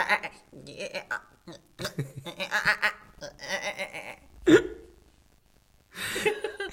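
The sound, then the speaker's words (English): A person's voice imitates a goat, letting out a lively series of quavering bleats with brief pauses between them, one sharper bleat near the end and a final wavering call. “Grover was talking to the animals while they were riding, and you know, and as in the book, it's called a series of goat bleats.”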